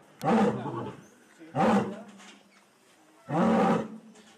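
A lion roars three times in quick succession, each deep, rasping bellow loud, with short pauses between and the last roar slightly longer, as captive lions are lured out of their cages into transport crates early in the morning in Floridablanca, Colombia.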